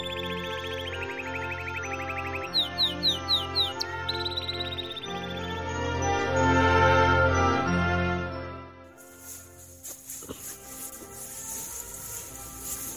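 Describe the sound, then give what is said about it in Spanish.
Small birds chirp in quick, repeated bursts over a soft, sustained musical backdrop, the tweets clustering in the first few seconds before the music swells and the chirping fades. “Vale, esperamos a ver si hay algún pajarito por aquí.”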